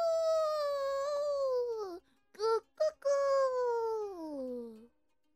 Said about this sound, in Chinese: 小朋友，这是什么声音呢？原来是天要亮了，公鸡都起床了耶！